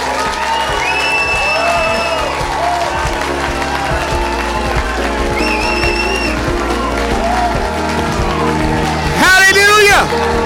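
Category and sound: crowd, audience clapping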